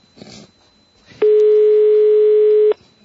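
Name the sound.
telephone ringing tone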